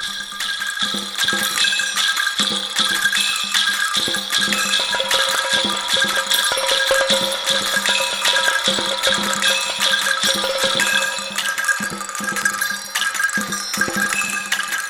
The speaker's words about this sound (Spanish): La banda nerviosa autónoma es una orquesta de arañas, robots, que ejecutan ritmos en tambores, cascabeles, maracas, teponastes y campanas. Aquí interpretan un polinomio circular binario.